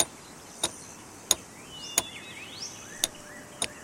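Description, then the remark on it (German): Light, sharp clicks of a hammer tapping a nail as a man hammers the nail into his nostril, five taps at uneven intervals, quiet, with faint high chirping sounds in the background between them. “Abgesehen von dem leichten Klicken, das ihr gerade hört, als der Hammer auf den Nagel kopft.”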